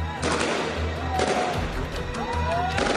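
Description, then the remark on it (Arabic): Several sharp gunshots, fired by a bodyguard, crack out at irregular intervals over a busy wash of crowd noise, with voices shouting and talking throughout in a tense outdoor scene at a protest in Lebanon. “اطلاق نار بهذه الاثناء احد المرافقين يطلق عن النيران بوضوح”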